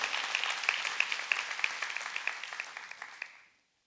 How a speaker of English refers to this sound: Can you give a big hand clap for yourself for caring? Uh, come on, come on, caring about your neighbor.